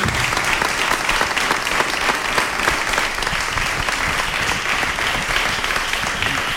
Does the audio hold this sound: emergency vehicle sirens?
no